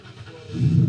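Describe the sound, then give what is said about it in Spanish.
A Mustang car engine, started remotely, turns over and settles into a deep, low rumble that swells louder after a quiet moment, heard briefly with no voices. “me lo compré, mira, lo acabo de encender remotamente.”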